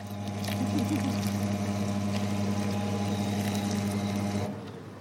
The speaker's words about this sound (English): Let's mince away then. I can only apologize here because the sound of haggis mix going through a mincer might be the most unpleasant sound I've ever recorded.